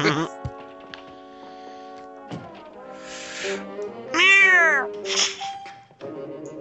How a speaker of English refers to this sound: cat looking like, why the hell am I? What the hell is going on? it looks like they've just catnipped that cat up to fuck.